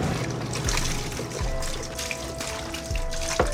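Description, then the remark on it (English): A steady stream of milk pours and gurgles down a drain at a grocery store in Montana for several seconds, continuous, with a faint low hum underneath and no voices. “When I came here four years ago, I had no idea that they were pouring down as much milk down the drain as they have been.”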